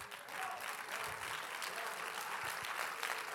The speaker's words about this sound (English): come to this church say, clapping your hands, come on.